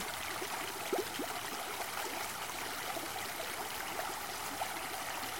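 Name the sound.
flowing stream water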